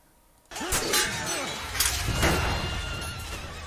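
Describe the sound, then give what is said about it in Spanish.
Horses neigh and whinny loudly over a dense, chaotic battle din, with arrows flying, horses falling and carts tipped on their sides and half on fire, crashing and shattering noises mixed in, starting abruptly after a brief quiet moment. “Ven pasando flechas por acá, por allá, los caballos cayéndose, las carretas de costado, medio prendidas a fuego.”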